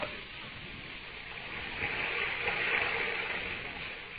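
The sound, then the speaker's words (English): A steady, muffled rush of running water heard through a wall, like a river flowing under the ground, continuous with a gentle swell in the middle and no voices. “When I press my ear against the wall, I can hear the water running like it was a river under the ground.”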